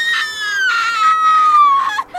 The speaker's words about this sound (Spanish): Cuando consiguió encender la luz, solo pudo gritar.